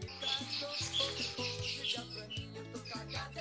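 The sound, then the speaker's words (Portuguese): Bright, repeated bird chirps flicker quickly above a steady, music-like background of low sustained tones, fairly loud, with no talking. “Ó, passarinho.”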